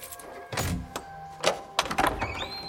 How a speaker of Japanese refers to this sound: 鍵の音と重い金属製のドアを開ける音がした。